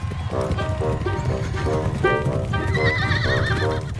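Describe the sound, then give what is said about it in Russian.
A ridden horse gallops steadily with fast, thudding hoofbeats while loud, quavering neighs and whinnies repeat over the top, continuous throughout. “Макрой был уже в седле. Он несся вскачь, осыпая своих преследователей громкими проклятиями, и угрозами и скрылся в спасительном кустарнике.”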